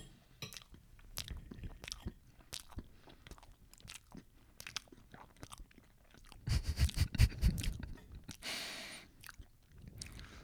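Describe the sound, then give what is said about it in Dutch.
Wet chewing and lip-smacking on chocolate cake with a crumble topping, with repeated squishy bites and mouth clicks, growing louder and busier toward the end; no one is speaking. “Dat is ook een aandoening, hè? Dat je niet tegen smak kan.”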